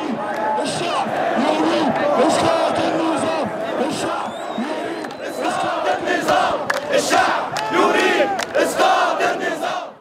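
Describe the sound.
A large protest crowd in Cairo during the Arab Spring chants the slogan "The people want the fall of the regime" in unison, a dense roar of many voices rising and falling in rhythmic bursts with sharp shouts and claps poking through, loud throughout.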